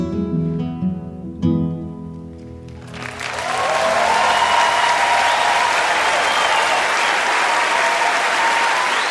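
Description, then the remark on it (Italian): A final sung or played note fades out, then a loud, dense wash of audience applause at a live concert at the Royal Harbour Hall swells up and continues steadily, with no talk over it. “Ci uniamo agli applausi della Royal Harbour Hall”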